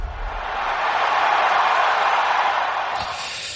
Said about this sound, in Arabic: كابتن خليل شغلنا لك صوت الجمهور عشان تعيش اجواء الملاعب مثل اول